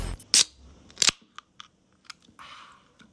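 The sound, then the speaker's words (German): A can of Estrella Damm beer is opened: two sharp metallic cracks, a few small clicks, then a brief fizzing hiss, with no talking. “Obacht, ein besonderes Geräusch.”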